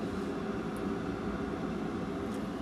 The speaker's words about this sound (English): As you can hear, you can hear my the Keurig in the background.